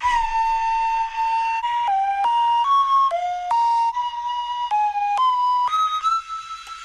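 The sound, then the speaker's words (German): A wooden nose flute, held against the nostrils, plays a simple, slow Christmas melody of about a dozen breathy, whistle-like notes, mostly held and stepping up and down in a narrow high range, with no one talking. “Das war die Nasenflöte.”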